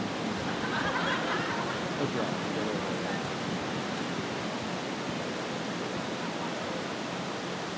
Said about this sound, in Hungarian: Valahogy az embereket ingerli ez az eső, hogy kimenjenek. Tényleg. Na jó. Lehet, hogy attól félnek, hogy ez fog ránk szakadni.